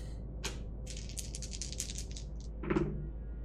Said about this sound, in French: Donc je jette 2 dés cette fois-ci. Mon bonus unique.